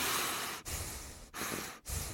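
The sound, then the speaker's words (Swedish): Steady, airy breathing in and out through the nose, fairly loud, in several long breaths with brief pauses between them, no talking. “och så kan man faktiskt träna på att andas in och ut genom näsan.”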